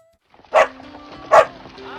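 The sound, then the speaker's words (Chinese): A dog barks twice, two sharp, loud woofs about a second apart, over a faint steady tonal hum, as it sets off on the road again with its companion. “说着，小普带着狗狗继续上路了。”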